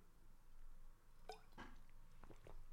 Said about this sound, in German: Mal einen Schluck Wasser trinken.